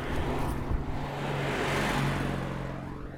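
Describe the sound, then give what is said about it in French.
A Citroën 2CV car passes by in Haute-Vienne, Limousin, France, its engine a steady buzzing drone that swells toward the middle and fades slightly as it moves away, with no voices over it. “Alors attention, deux chevaux.”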